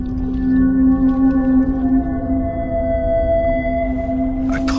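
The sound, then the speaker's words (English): A pod of a dozen whales calling as they swim: long, sustained moaning tones overlap and drift steadily for the whole stretch over a deep, rumbling wash, with fainter higher cries layered on top. No one speaks. “It was a pod of a dozen whales.”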